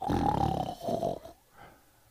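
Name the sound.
voice imitating snoring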